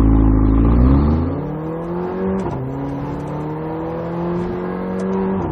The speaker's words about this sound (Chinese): 可以听到这台车在每一次换挡的时候呢，就有一点跟超跑那种感觉的是放炮的这么一个味道。虽然是一台小小的2.0 T 发动机，它的驾驶魅力也是足够的。